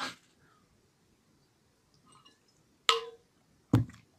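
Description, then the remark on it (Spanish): Quiet sips of water as a person drinks, with soft swallowing clicks, a few brief wet sounds spaced out over a few seconds, the last two sharper and louder. No one talks. “Necesito tomar agua.”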